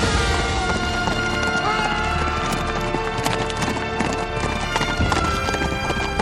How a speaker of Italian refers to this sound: Tex, guarda laggiù! Quel polverone! È un cavallo che trascina qualcosa. E con molte probabilità quel qualcosa sono i resti del colonnello Arlington.